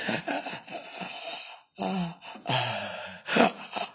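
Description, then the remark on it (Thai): A person imitates the labored, gasping breathing of a COVID patient whose lungs cannot take in oxygen: a series of harsh, strained breaths with a moaning edge, fairly loud, broken by one brief pause, with no talking. “โอ้แล้วหายใจแบบนี้นะเพราะว่าปอดมันไม่รับออกซิเจนอ่ะ มันเสียสูญเสียเนื้อปอดเนี่ยทรมานมากเลยหายใจ”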